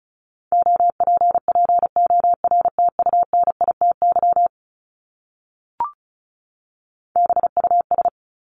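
Fast Morse code at 35 words per minute sending words from the top 751-1000 common words: a steady, mid-pitched tone keyed in rapid dots and dashes, a pause broken by a single short blip, then another quick burst of code.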